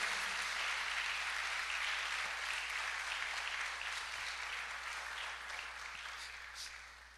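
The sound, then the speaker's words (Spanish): An audience at a sermon claps for the Holy Spirit, a dense sustained wash of many hands that holds loud for several seconds and then gradually tapers off toward the end. “Dile un aplauso al precioso Espíritu Santo.”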